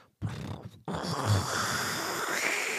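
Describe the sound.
A voice imitates a filter coffee machine percolating: a short gurgling burst, a brief pause, then a steady, raspy, sputtering gurgle.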